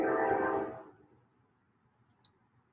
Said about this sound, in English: The train sounds like it's right across the street. The train track's not even close. Them motherfuckers just loud. Like they're not even that close. That's the weirdest shit in the world because. Yeah, that shit like fucking five, six blocks away.